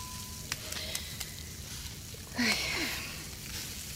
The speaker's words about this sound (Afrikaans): Niks is so terapeuties soos 'n knetterende vuurtjie in die gesis van 'n vleisie op die kole nie.